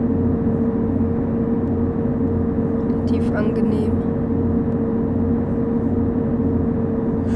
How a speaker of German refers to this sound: Fahren wir mit 120 über die Autobahn.